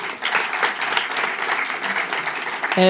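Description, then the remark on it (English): An audience applauds the jury president as she is introduced, with dense, steady clapping that fills the whole stretch, a broad crackle of many hands, ending as a tonal sound cuts in. “On peut l'applaudir.”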